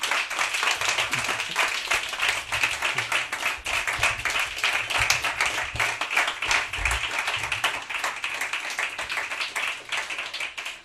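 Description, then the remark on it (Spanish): An audience applauds steadily for the radio project Radio Gaga, a dense, continuous patter of many hands clapping at a fairly even loudness throughout, with no voices standing out. “lo que no tenéis que esperar es para recibir este aplauso por este proyecto tan maravilloso.”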